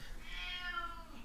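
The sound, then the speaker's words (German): A single drawn-out meow from a pet cat in the background, with a rising then falling tone, against a faint low background hum, with no talking over it. “Das ist unsere Katze, die da gerade im Hintergrund noch ihren Kommentar aufgibt.”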